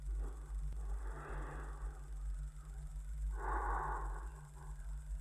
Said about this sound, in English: And all I got was breathing.